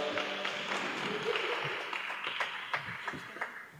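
A crowd applauds with dense, steady clapping that holds for several seconds, then thins slightly toward the end, with a few sharper individual claps standing out.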